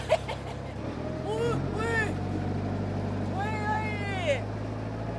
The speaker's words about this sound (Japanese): エンジンの音が激しくなりました